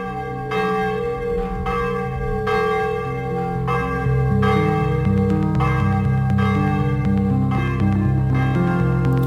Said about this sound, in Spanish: El toque manual de las campanas podría convertirse en patrimonio cultural inmaterial de la humanidad. La Asociación de Campaneros de Utrera en Sevilla ya presentaba en el año 2014 la solicitud